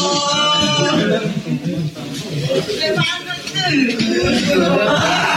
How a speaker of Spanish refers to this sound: Esos gritos que usted escucha son de las mujeres que llegaron ayer a la presidencia municipal de San Nicolás Totolapan, allá, bueno, Totolapan se llama el pueblo, en Guerrero. Llegaron a encontrar una veintena de cuerpos tirados,